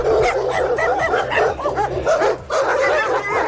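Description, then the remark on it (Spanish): Several dogs bark and yelp over one another in a loud, continuous chorus at a blessing of pets on the feast of San Antón in Palencia, Spain, with overlapping yips and whines filling the whole stretch and no one speaking. “Sin duda, este es el sonido de la jornada.”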